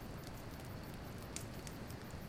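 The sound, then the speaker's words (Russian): A campfire burns outdoors in damp, chilly summer weather: a steady low roar with a few sharp crackles and pops scattered across it, fairly quiet and continuous, with no voices. “Ладно, хоть он костер есть немножко.”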